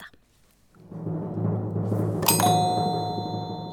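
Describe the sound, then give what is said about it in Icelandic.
A timpani roll swells into a low, sustained rumble, and a bright metallic strike rings out over it and lingers to the end. No one speaks. “Það eru pákur og prumparar með rétt stig.”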